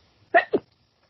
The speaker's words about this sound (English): Bless you.